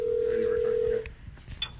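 A single steady electronic phone ring heard through the line, a flat tone lasting about a second before cutting off into faint line noise.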